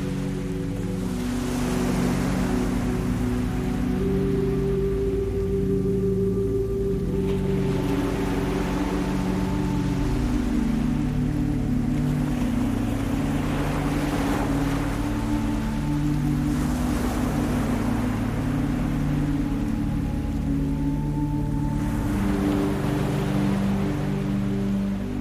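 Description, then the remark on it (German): Ocean waves at an island wash in and recede in a slow, steady rhythm, about every five seconds, over a soft, sustained low drone that continues throughout; no one speaks. “Du lauscht noch eine Weile weiter den Wellen.”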